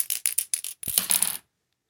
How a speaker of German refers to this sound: So, ich habe die 70 gewürfelt. Das ist drüber.